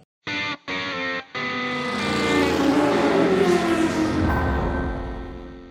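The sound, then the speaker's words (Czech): A short jingle made of car engine sounds: three quick, punchy revs followed by a long, loud, processed engine roar that swells up and then gradually fades, with no talking. “Tak eh, já zatím eh, jenom zmíním na začátku několik novinek a Petr tam pustí asi znělku.”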